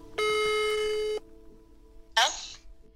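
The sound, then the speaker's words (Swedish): A single steady ringback tone from an outgoing phone call to the main witness lasts about a second, followed by a pause and then a brief burst of a voice starting to speak. “När jag ringer och frågar huvudvittnet”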